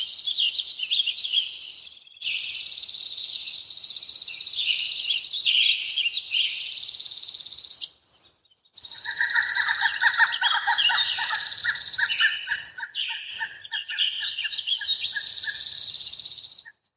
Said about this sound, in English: what a cool bird! A pileated woodpecker just flew over us. It's our largest woodpecker, nearly the size of a crow.